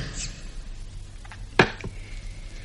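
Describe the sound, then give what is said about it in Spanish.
A single sharp, woody thwack of an axe biting into a tree trunk as the tree is being felled, with a quick fainter knock just after, set against a quiet low hum with no voices. “A todo esto, los amigos de Alaí se habían dado la voz de alarma y cuchicheaban entre las hojas mientras el capitán talaba el árbol.”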